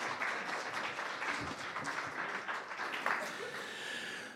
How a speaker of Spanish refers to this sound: así que una vez más les pido que le demos un fuerte aplauso y él va a estar compartiendo con nosotros.